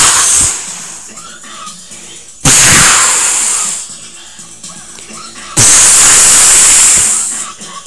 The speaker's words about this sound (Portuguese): vou dar um tiro nesse velho. Dá um tiro no velho